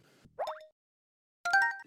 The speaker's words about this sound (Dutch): Eh, maar het geluid is geraden. Het was een geluidje uit het menu van Super Mario 3D World. Onlangs verschenen voor de Nintendo Switch.